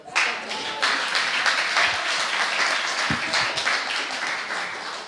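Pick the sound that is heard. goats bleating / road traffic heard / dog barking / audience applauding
audience applauding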